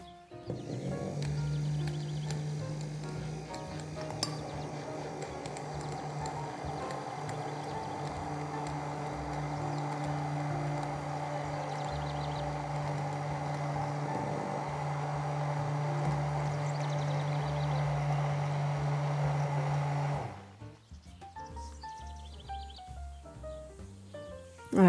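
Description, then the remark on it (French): An immersion blender whirs steadily in a measuring jug, emulsifying a filtered mixture, for about nineteen seconds, a loud, even motor drone with a low hum, then cuts off, leaving a few faint clinks and rustles. “Et là maintenant, je vais émulsionner avec mon mixeur plongeant dans mon verre doseur.”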